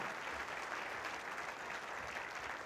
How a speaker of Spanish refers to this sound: Denle un aplauso a Dios por sus pastores, por la iglesia.